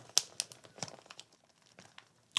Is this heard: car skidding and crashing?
no